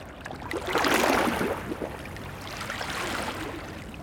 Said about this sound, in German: Bari an einem Winterabend. An der Uferpromenade schlagen die Wellen an die Mauer.